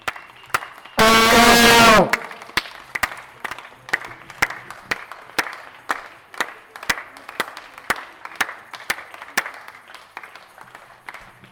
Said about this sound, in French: moi, je sors sur le balcon et je prends un vuvuzela. C'est un instrument qui a été beaucoup utilisé pendant la Coupe du Monde de foot en 2010 en Afrique du Sud et qui fait un son euh, très fort, un peu comme un, comme un barrissement d'éléphant.